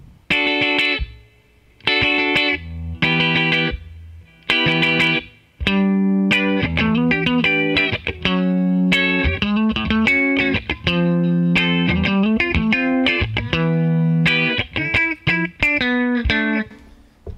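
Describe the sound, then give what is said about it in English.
Electric guitar run through a CE-1 chorus emulation, playing a riff of bright, shimmering chords with short gaps early on, then a steady flowing line; loud, no voices. “So here is um, here's the CE1 emulation.”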